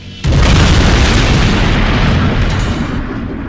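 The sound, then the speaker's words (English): A sudden, massive crashing boom of a spaceship crash erupts after a brief quiet moment, then rolls on as a loud, dense rumbling roar that fades only slightly, with no voices present; from a trailer for the Big Finish Torchwood audio drama Sync. “Is this your spaceship? I saw the crash.”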